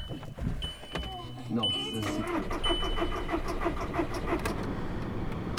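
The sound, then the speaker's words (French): A car engine cranks over and over with a steady, rhythmic churning but never catches, while a thin high electronic tone sounds on and off; the car has not been driven for a long time. “Pourquoi tu démarres pas bon, ben La voiture veut plus démarrer.”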